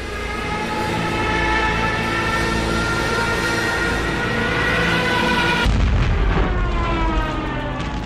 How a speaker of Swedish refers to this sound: Och marken vibrerar ju av dunder och brak, missljud och kaos, kulsprutesmatte och larm och så vidare. Och Beaver skriver Ovanför störtdök de klumpiga, lågvingade Stuka-flygplanen med sina tjutande sirener mot de sovjetiska ställningarna